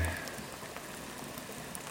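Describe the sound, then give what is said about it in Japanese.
Steady, gentle rainy-season (tsuyu) rain falls continuously in July, a light drizzle during a field survey, a soft dense patter of drops hitting surfaces, with no voices and no change in intensity over the short stretch. “7月今日は割と梅雨っぽい雨ですねえー、まあ集中豪雨うん大雨が続いていたんですけど、うん、今日はしとしとぐらいな感じです”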